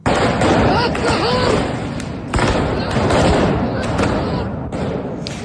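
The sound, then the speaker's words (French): Fireworks explode inside the Al-Aqsa mosque: several sharp, loud, echoing bangs at irregular intervals over a constant roar of crowd noise and shouting voices. “Dans cette vidéo qui circule sur les réseaux sociaux, des explosions de feux d'artifice à l'intérieur d'Alaxa et des personnes au visage masqué.”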